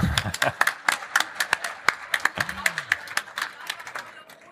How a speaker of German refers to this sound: Vielen, Applaus, äh, vielen Dank und Applaus für euch erstmal.